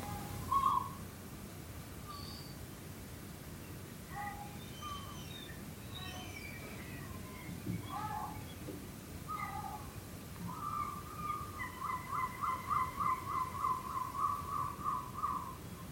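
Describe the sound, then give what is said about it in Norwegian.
Gulls call through the night, with scattered plaintive mewing cries, then a rapid run of repeated yelping notes toward the end, over a low steady rumble. “Er måker slik som barn, at de klager mest når foreldrene hører dem. Og om natta snakker de sitt egentlige språk.”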